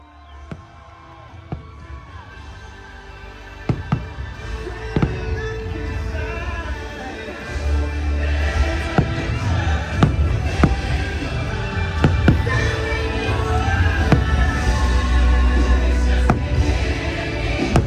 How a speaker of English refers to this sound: And that is the sound of, as Dan puts it, money burning in the air. uh, fireworks bur- uh, bursting over the Magic Kingdom because I don't think any trip to the Magic Kingdom is complete without the sound of fireworks in your ears.